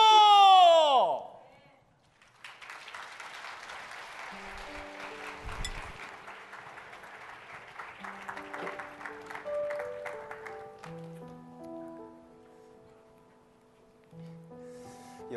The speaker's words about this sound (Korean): 수고해, 수고해 주신 분들께 한번 더 박수로 격려해 주시겠습니까? 감사합니다.